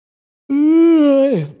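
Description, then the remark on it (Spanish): A single loud, drawn-out yawn with a steady voiced tone for about a second, then sliding down in pitch and trailing off into a breathy exhale. Alone, with no talking. “Hostia, disculpad, no, no, es que tenga sueño ni nada, pero me ha entrado un, bostezo que no me he podido ni, ni esconder un segundo.”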